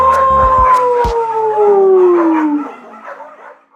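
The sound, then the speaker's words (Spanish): A dog lets out one long, loud howl that slides steadily downward in pitch before fading away, with a few low thumps at the very start. “¿Listos para comenzar? ¡Aúlla conmigo! ¡Aú!”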